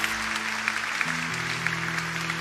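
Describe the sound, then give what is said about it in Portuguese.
An audience applauds the Lord in a steady, dense wash of clapping, with sustained low organ or keyboard chords holding underneath and shifting pitch partway through. “Pode aplaudir o Senhor e que seja feito agora um novo tempo na tua vida.”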